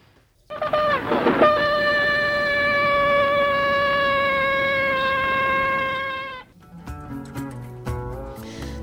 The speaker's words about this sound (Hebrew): אתה רוצה לשמוע לקראת סיום שוב את השופר? יאללה, בוא נשמע אותו.